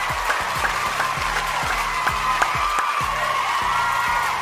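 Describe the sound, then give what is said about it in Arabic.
Steady applause from a crowd, dense and continuous, with a few cheers and whoops rising over the clapping, all at a fairly even loudness and with no talking. “أولا زقف لإلكن وين ما كنتوا تكونوا”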